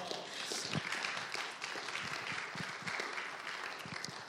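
A crowd applauds steadily for several seconds, many hands clapping in a dense, continuous patter that stays loud and even throughout, with no one speaking over it.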